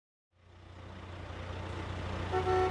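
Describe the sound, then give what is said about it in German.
The heavy engine of a 30-meter low-loader truck rumbles low and steady as it slowly moves a huge aircraft fuselage section on a country road outside Toulouse, France, in summer 1971, amid jammed traffic, growing slightly louder, with a brief tonal blare like a Renault's horn near the end. No one speaks. “Frustrierte Autofahrer hupen protestierend mit ihren Renaults, als ein 30 Meter langer Tieflader langsam ein riesiges Rumpfteil auf eine Landstraße bewegt”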